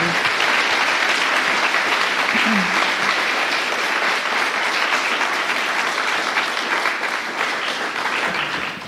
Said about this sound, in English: so, um, why don't you guys give the Wenzels just a, a round of applause for sharing?